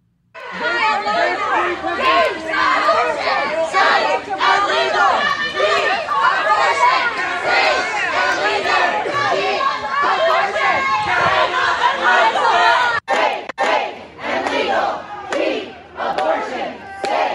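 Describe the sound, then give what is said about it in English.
A large crowd of protesters, thousands of people at homes, screams and yells continuously, a dense wall of overlapping shouting voices that barely lets up, with a brief break near the end before the loud clamor resumes. “But they're at their homes screaming, yelling by the thousands 24 hours a day.”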